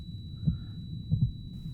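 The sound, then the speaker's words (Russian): A low, muffled heartbeat thuds in paired beats, two quick double-thumps in under two seconds over a faint steady hum, with no voices. “Это был тихий, глухой, частый стук, очень похожий на тиканье часов, если их завернуть в вату.”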